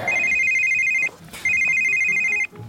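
A phone rings with an incoming call, a steady electronic trill in two long bursts, about a second each, separated by a short pause. The ring is loud, with faint background noise underneath.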